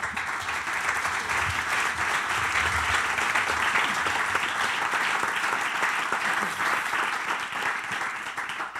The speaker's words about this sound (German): Genau, ich äh, denke, ihr habt euch einen Applaus verdient. Vielen Dank.